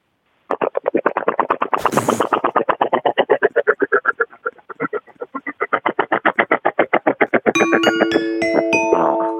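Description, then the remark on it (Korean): A 68-year-old's voice imitates a power tiller (farm cultivator) engine with a steady, rapid chugging pulse of rough putters, ending with a bright chime-like electronic tone layered over it. “그 경운기에서 승부 승부 봐요 우리.”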